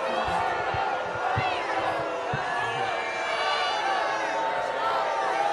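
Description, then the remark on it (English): A large crowd at a Trump event in Pickens, South Carolina, roars with sustained booing and jeering as United States Senator Lindsey Graham is welcomed, many voices overlapping into a loud, steady wall of noise with a few low thumps underneath. “There they go booing.”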